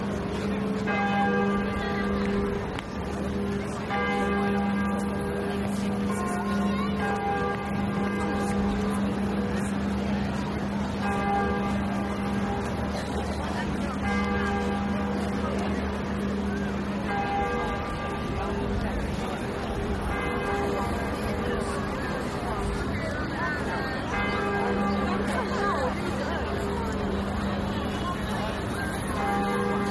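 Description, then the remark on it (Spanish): The large bells of Notre Dame cathedral in Paris ring at noon, continuously, deep resonant tolls overlapping into a rich, sustained peal, with faint traffic and city bustle underneath. “Son las 12 del mediodía y así suenan las campanas de Notre Dame de París.”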